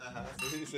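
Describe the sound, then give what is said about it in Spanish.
Wine glasses clink together in a quick toast, a bright ringing chime that lingers briefly, with people talking and murmuring underneath. “Está bueno el vinito, ¿no?”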